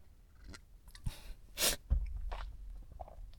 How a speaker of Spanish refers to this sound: Otro trago de café.